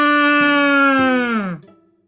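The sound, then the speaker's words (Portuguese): A single long, loud moo, like a cow's, holding a steady droning tone for about a second and a half before sliding down in pitch and fading out. “Ouviu um mugido.”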